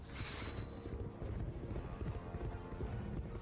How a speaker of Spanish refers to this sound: José, montado en su caballo, cabalgaba lentamente.